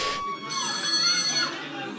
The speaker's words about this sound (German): also sie hat so einen Teil eingefügt, wo das Telefon klingelt, vermeintlich.